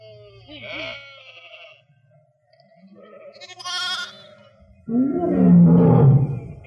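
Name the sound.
lion roaring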